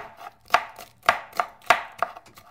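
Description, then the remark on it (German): A knife chops steadily on a cutting board, sharp thunks falling in an uneven rhythm about twice a second, dicing potatoes into small cubes with no voices. “Kartoffeln tut man im kleinen Würfel schneiden. Den Geissenkäse auch.”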